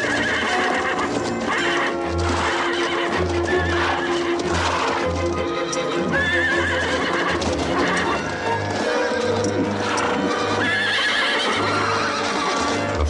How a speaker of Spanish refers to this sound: Al llegar junto a ellos, los caballos frenan y se encabritan, pero no atraviesan la masa de hombres tumbados.